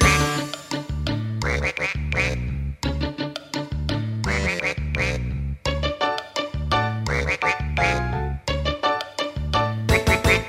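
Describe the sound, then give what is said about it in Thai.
Repeated nasal duck quacks ("ga ga ga") sound in quick rhythmic bursts over a steady, bouncy musical backing with a pulsing bass line, the quacks loud and continuous throughout, in a children's song about ducks bathing in a canal full of shellfish, fish and crabs. “กากากาเป็ดอาบน้ำในคลอง ตาก็จ้องแลมอง เพราะในคลองมีหอยปลาปู”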